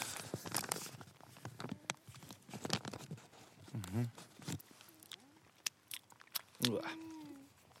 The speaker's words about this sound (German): Ja, aus diesem Pulver macht man den Pudding. Deswegen werde ich jetzt kurz was naschen, damit das auch alles den Regeln nach vonstatten geht.